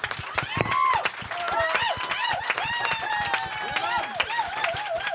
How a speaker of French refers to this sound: Merci, on applaudit Cette blague!